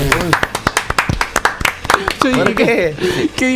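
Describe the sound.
Brief, scattered applause: a few hands clapping in quick, uneven bursts, with voices talking and chuckling loudly over the claps throughout.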